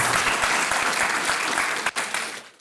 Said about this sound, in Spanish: No, denle ese fuerte aplauso de verdad.